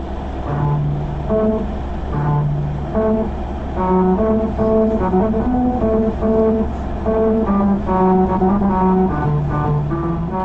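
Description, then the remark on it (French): A car drives over a musical road in Okinawa, Japan, its tires humming a slow melody of steady, sustained tones over a constant low engine and road rumble, with no one speaking. “Toujours au Japon, il y a cette autre route musicale à Okinawa.”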